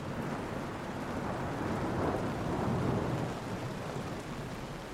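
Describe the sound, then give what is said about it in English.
Heavy, steady rain falling in sheets hisses throughout while a low rumble of thunder swells and rolls through the middle, loud, with no voices. “Thunder claps, the rain falls in sheets.”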